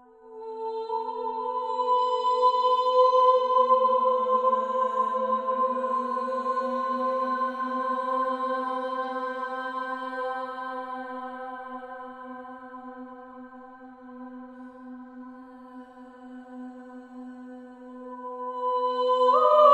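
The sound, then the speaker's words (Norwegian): Steady, overlapping tones from five women singing hang and blend for nearly twenty seconds, swelling and fading slowly in the long, ringing reverberation of Emanuel Vigeland's stone mausoleum; no one speaks. “Klangen du kan høre i bakgrunnen, er rett og slett sånn rommet høres ut.”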